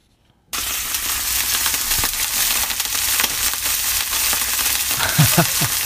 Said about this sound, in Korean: 이게 뭔 소리일까요? 이게요. 전 부치는 소리래요. 그 기름 둘러가지고 툭툭 튀는 소리. 예, 전 부치는 소리.